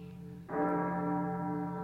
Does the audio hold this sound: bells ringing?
yes